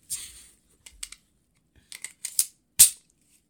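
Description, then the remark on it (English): A series of sharp, fairly crisp mechanical clicks and snaps from an unloaded handgun's action with the magazine taken out, coming in irregular bursts with short pauses, ending on one louder metallic click. “All right, well, put your fucking gun down. I took it out before I made the sound.”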